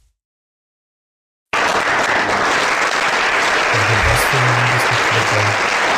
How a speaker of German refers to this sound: Klatschen in der chinesischen Volkskammer, jawohl.